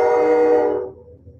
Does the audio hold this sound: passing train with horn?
yes